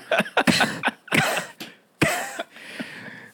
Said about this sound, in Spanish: Y era que mi esposa estaba chequeando mi teléfono y cuando ella me pregunta de quién era un número que no conocía, fue que empecé a toser seco.